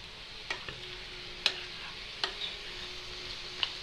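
Food sizzles steadily in a pan with a broad hiss as it is stirred, while a utensil scrapes and clicks against it a few times at irregular intervals. A faint steady hum from a dishwasher sits underneath; no one speaks.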